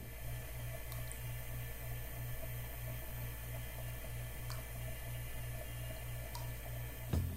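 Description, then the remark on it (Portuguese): Quiet kitchen ambience: a steady, faint wash like running water over a low, rhythmically pulsing appliance hum, with a few soft clinks and a sharper knock near the end. No one speaks. “Podemos também perceber um ambiente a partir de poucas informações sonoras, como essa cozinha.”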